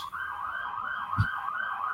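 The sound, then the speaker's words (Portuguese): An ambulance siren wails steadily, its pitch wavering as it passes outside, with a brief low thump partway through. “E outra ambulância aí”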